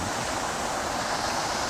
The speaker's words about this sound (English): and we discovered that there was actually a waterfall right here. That's amazing. What do you think it's doing, the water between the two places? Where's it coming from? Where's it going?